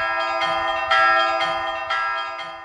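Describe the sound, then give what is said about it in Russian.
Five church bells ring out from a newly built belfry in a steady, repeated peal, each bright strike overlapping the lingering hum of the last, fairly loud and with no voices. “Звонница была возведена к Пасхе, и на светлой седмице ее и пять колоколов осветил”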